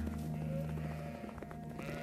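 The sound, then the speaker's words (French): A flock of about 700 sheep bleating together as a shepherd on horseback leads them to the top of a hill to graze, overlapping calls forming a dense, continuous chorus, with no pauses and no one speaking. “Chaque jour que Dieu fait, il enfourche son cheval et conduit ses 700 moutons au sommet d'une colline pour qu'ils puissent brouter toute la journée.”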